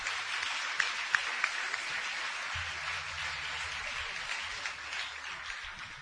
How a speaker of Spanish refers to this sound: Para las luces también, un aplauso fuerte para quien estaciona.